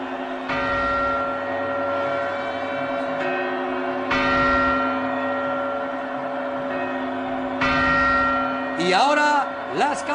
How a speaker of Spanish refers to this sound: campanadas.